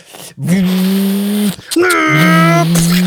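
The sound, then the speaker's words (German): A voice imitates a car engine with two long, steady droning hums, the second louder and buzzier, pitched low, with no other sounds. “Hauptsache Auto brumm brumm. Hauptsache brrr”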